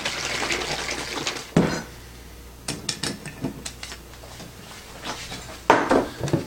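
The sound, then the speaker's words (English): A plastic bottle of homemade general purpose cleaner, mixed in equal parts and smelling of vinegar, is shaken: liquid sloshes in a steady rush, followed by a sharp knock and a scattering of quick clicks and taps, with a final burst of splashing. “All you have to do is shake it up, and you're ready to go.”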